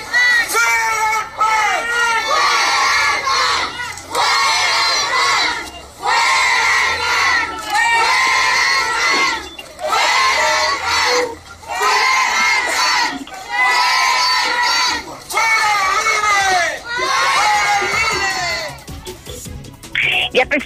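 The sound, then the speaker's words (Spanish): A crowd of protesters shouts loudly in repeated bursts outside the State Electoral Institute office, many voices chanting and yelling together with brief pauses between rounds, energetic throughout. “esos múltiples gritos que se escuchaban al exterior del organismo del Instituto Estatal Electoral, se les hizo una invitación por parte de la autoridad a pasar e incluso si tendrían algún pliego petitorio a entregarlo.”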